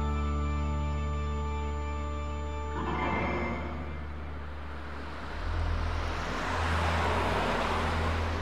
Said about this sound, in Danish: Fra kl. 23.30 kører der næsten ingen biler på vejen. Fra kl. 1 kører der cirka 2 til tre biler forbi i timen.